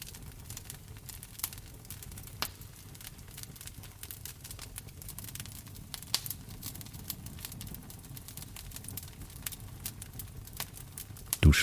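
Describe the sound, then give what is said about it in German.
A wood fire crackles steadily in a fireplace, with irregular sharp pops and snaps over a soft, low rumble of flames. No voices are heard. “Du hörst in der Einschlafmeditation Feuerknistern von einem Kamin.”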